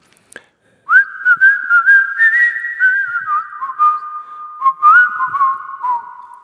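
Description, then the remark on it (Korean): A person whistles a short, bright melody, a smooth tune of held notes with gentle slides and a few quick dips, the jingle of a famous old mobile phone advertisement by a major company, with no talking. “아마 옛날 사람들은 제가 지금 휘파람 이 멜로디를 부르면 어, 그 광고 하실 텐데 이걸 기준으로 삼으셔도 괜찮습니다.”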